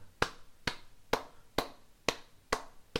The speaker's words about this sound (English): sarcastic golf clap. There you go.